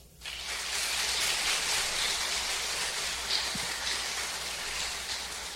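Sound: audience applause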